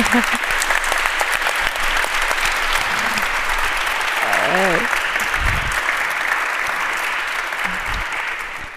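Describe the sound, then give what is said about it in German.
A steady round of audience applause at an event, given as thanks to the two people who prepared it, fills the whole stretch, dense and even, with a few brief voices and a short laugh rising over the clapping midway. “Vielen Dank, vielleicht mit einem kleinen Applaus ja. an Sie beide.”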